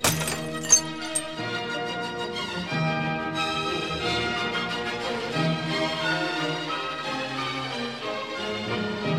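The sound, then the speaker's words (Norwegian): A sharp burst of a glass shattering after sound waves set it vibrating, with a few bright tinkling fragments at the start, followed by a long, steady ringing harmonic tone that lasts to the end. “Etter hvert som lydbølgene presser på, vil glasset svinge mer og mer, før det til slutt”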